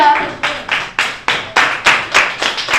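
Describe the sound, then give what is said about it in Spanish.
A group of classmates in a school class applauding: steady, rhythmic bursts of clapping, about three per second, loud and sustained through the whole moment with no talking over it. “Bueno, ya lo ven, no es habitual que esto ocurra en una clase, que una chica hable de su propio placer con 13 años y de ahí el aplauso cerrado de sus compañeros.”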